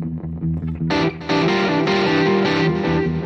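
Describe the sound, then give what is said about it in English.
An electric guitar played through heavy distortion and effects: a few muted, chugging low notes, then bright, buzzing sustained chords that ring loudly with a brief dip before swelling back. “it's really weird to hear this type of stuff out of this type of guitar”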